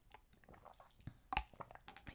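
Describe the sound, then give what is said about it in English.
Someone sips water from a cup through a straw, making soft, irregular wet slurps and squishy bursts, with one louder slurp partway through and no talking. “I have my cup of water here, like I always do. I've got my straw. Everybody can take a sip with me.”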